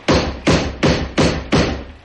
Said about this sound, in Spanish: Era un golpeteo repetitivo y ensordecedor, como si procediese de la parte inferior de la puerta. Este martilleo no podría ser producido por ninguna rama de algún árbol cercano, al punto que en las proximidades de la cabaña no se divisaba árbol alguno